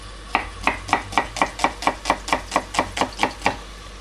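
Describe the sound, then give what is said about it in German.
A knife chops food finely on a board for a fine sauce, about fourteen crisp, even strikes in a steady quick rhythm, each a sharp clack with a brief scrape, with no talking. “Ja, möglichst fein. Soll ja auch eine feine Soße werden. Also fein schneiden.”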